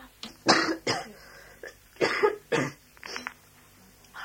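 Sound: repeated coughing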